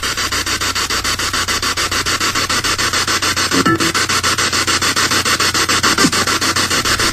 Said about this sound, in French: Je suis content de faire ce test-là avec vous aujourd'hui parce que ça vous montre un peu euh, comment c'est hallucinant écouter une ghost box, essayer de se concentrer, euh, essayer de capter des phénomènes de voix électronique au travers de ce